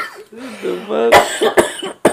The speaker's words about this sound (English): I'm gonna cough my ass out, dog.